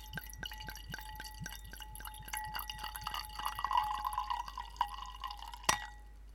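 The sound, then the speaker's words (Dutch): Wine glugs from a bottle into a glass for a toast on Easter morning, in quick, rhythmic pulses, with a ringing tone building as the glass fills, then a sharp clink near the end. Fairly quiet, with no talking. “De wijn is ingeschonken.”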